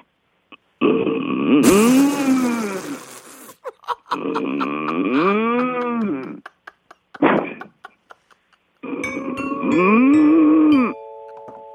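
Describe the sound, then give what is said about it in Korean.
A clothing-store owner from Dongtan imitates a dairy cow mooing with three long, loud, drawn-out lowing calls, separated by brief pauses with some faint clicks between them. “어 한번 젖소 소리 하고.”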